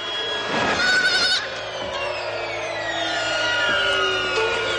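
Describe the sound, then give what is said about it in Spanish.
A goat bleats on a black-and-white television as a golden eagle catches it, a loud, wavering cry near the start, followed by softer drawn-out bleats over a steady background hum, with no one talking. “En la tele en blanco y negro un águila real atrapa una cabra.”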